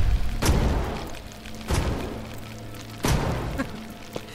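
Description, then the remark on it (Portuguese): Three loud gunshots ring out, evenly spaced about a second apart, each a sharp booming blast with a short echoing tail, with no talking in between. “Esses tiros não vão me afetar.”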